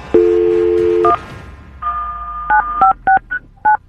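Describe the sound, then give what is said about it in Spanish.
A telephone number being dialed to call a roommate, posing as a security agency: a steady low dial tone hums for about a second, then a series of clear touch-tone beeps follows in an uneven rhythm, with no voices. “vamos a marcarle a tu roommate eh, de parte de una agencia de, seguridad”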